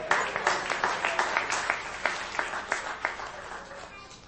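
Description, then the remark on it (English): A round of applause for a computer from a small group, steady overlapping clapping lasting a few seconds, with a handful of sharper, louder claps standing out before it thins toward the end. “Round of applause for the computer.”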